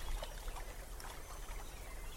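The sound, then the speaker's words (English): Water sloshes and swirls steadily as a person wades through shallow water, with soft splashing textures and a low rumbling undertone throughout. No one speaks. “I turned and waded in the water.”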